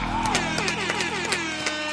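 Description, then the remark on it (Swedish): A short burst of crowd applause and cheering mixed with a loud, tonal horn blaring in repeated sliding honks, a festive sound effect played continuously for two seconds. “Och det här var länge sedan nu, men såklart så kör vi en applåd och en tuta på det!”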